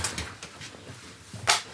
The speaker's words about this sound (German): Nicht mehr im Bundestag und nicht mehr daneben ganz kurz ins Studio, bevor sie die Tür schließt.